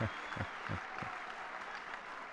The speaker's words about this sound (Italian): Allora facciamo un grande applauso di incoraggiamento